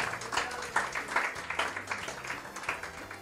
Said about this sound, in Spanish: Así que aplausos para CAE Babilón.